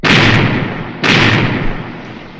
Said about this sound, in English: Aye, there's the sound of adventure. Cannon firing. Must be a pirate force attacking a fort. Aye, there they be. A pirate galleon giving a broadside to a Spanish fort.